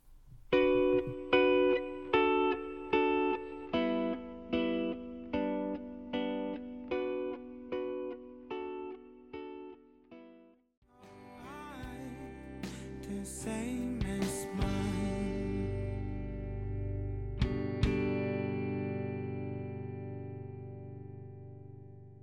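An indie rock song: an effected electric guitar strums a steady run of repeated chords, then the full band comes in with drums and distorted guitar, louder and denser.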